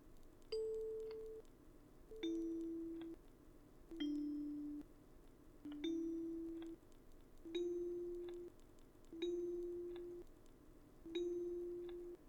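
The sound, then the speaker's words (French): Soft bell-like chimes ring in a steady repeating pattern, each a short two-note tone that fades before the next, about seven in a row with no voices. “Les petits flics, flac semblaient alors se transformer en petites clochettes.”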